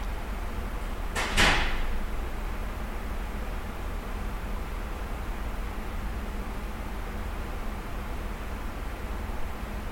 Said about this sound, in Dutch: Het enige hoorbare in deze opname is het sluiten van de deur van het archief en het ruisen en suizen van de klimaatregelaars.